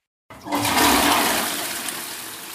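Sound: toilet flushing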